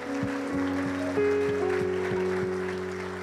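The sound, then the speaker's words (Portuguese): A church audience applauds Jesus in a steady, dense wash of clapping that lasts throughout, layered over sustained keyboard chords with a regular pulsing beat underneath. “Vamos aplaudir Jesus, gente, porque Deus é muito bom.”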